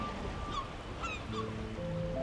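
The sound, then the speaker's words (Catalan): Seagulls call out in a few sharp, squawking cries over a steady wash of surf below a rocky clifftop by the sea, the waves rumbling underneath throughout. “Gavines, som al seu territori.”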